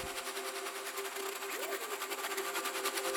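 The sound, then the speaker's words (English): A fluttery synthesizer effect: a bright, rapidly pulsing texture that trembles continuously over a steady droning tone, with one brief rising-and-falling pitch swoop midway. No voices. “And then there was another sort of fluttery sound, which and to give it some life in the top end.”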